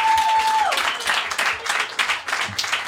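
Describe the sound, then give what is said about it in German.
Audience applause, a dense, steady patter of many hands clapping throughout, opening with a brief steady tone that slides downward in pitch before fading under the clapping. “Das war, ja, ein Applaus, kommt.”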